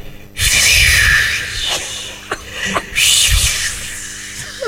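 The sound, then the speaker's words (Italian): A voice mimics a rough sea with breathy, hissing rushes of air: one long surging wave, a pause with small clicks, then a second swelling whoosh, loud. “Ti posso fare il mare, il mare mosso, il mare mosso.”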